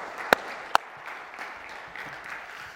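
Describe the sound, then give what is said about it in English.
An audience claps steadily, a dense wash of hand claps with a couple of sharper, louder claps standing out near the start. No one speaks over it. “Clapping's fine.”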